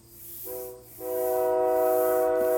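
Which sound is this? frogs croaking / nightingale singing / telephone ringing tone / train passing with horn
train passing with horn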